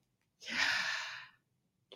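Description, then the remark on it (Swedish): A single slow, deliberate breath drawn in, a soft airy rush lasting about a second, followed by silence. “att det är tänkt som ett andetag att vi liksom ska använda det ordet för liksom att förankra, att förankra oss i Gud och att det är gjort som ett ande för att finnas med i vår andning så här när man andas in”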